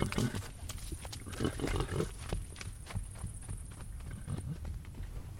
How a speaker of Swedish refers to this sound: Det låter trivsamt när hästar står och äter hö. Det är nästan som en meditation att stå och lyssna på deras tuggande och njutande.